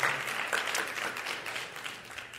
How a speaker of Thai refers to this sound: ขอบคุณพระเจ้าตบมือพระเจ้านะครับ สรรเสริญพระเจ้า ฮาเลลูยา